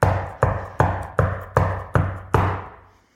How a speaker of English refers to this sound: So let's start knocking. And it's not a knock of urgency, it's a knock of expectancy.